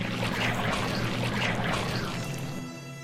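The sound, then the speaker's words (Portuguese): A toilet is flushed quickly in the middle of the night in one loud, continuous rush of water that gurgles and churns, then eases slightly as it drains away near the end. “Ele dá uma descarga rápida, uma descarga irresponsável o baço no meio da noite.”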